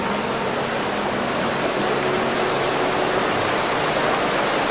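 A steady, full rushing wash of flowing river water pouring over stones, the current carrying a body downstream against the rocks, holding an even loudness throughout with no voices.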